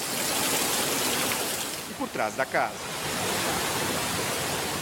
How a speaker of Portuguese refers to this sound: O rio da Cachoeira da Praia Brava, que passa a cerca de 40 metros da casa de Silvana